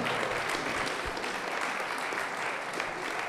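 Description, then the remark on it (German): Sustained audience applause, a dense steady wash of many hands clapping at an even loudness throughout, with no individual claps standing out and no talking over it. “Ja, das ist auch ein Applaus wert.”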